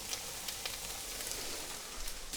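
Steady sizzling of vegetables simmering in a curry sauce in a pan, a continuous hissing crackle with small sharp pops scattered throughout, no voices.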